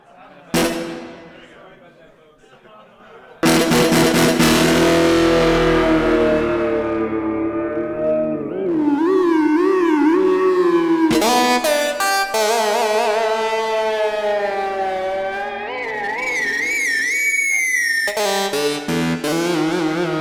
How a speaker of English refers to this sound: And so, one of the really fun things about this guitar is that you can play with feedback and distortion. I'm just going to show it to you briefly.